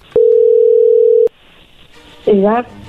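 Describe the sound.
A telephone line tone as a call is being dialed, one steady, mid-pitched beep lasting about a second, bracketed by sharp clicks, followed by quiet line hiss and a short burst of a voice.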